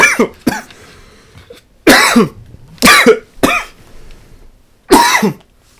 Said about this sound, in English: oh shit. Dude, I'm choking on water.